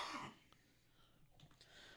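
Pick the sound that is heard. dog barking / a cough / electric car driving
a cough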